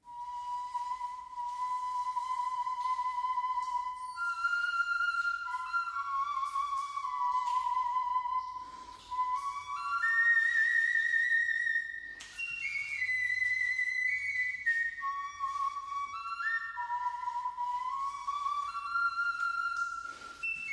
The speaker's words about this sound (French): la flûte a 22 cm de long et moins de 1 cm de diamètre, elle a cinq trous. Une réplique de cette flûte a été fabriquée et les sonorités qu'elle produit sont envoûtantes. Je vous les avais déjà fait entendre. Écoutez.